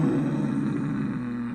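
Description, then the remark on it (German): A person imitates a cat's growl with a low, rough, sustained rumble from the throat, steady for about a second and a half, with no other sounds around it. “Das ist Knurren und Schnurren ist.”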